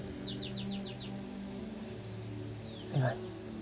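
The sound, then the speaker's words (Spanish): Birds sing outdoors on a windy day: a rapid series of high descending chirps followed by a longer whistled note, over a steady low hum, with a brief louder sound near the end. “Y a pesar de lo que sea, los portitos siguen cantando.”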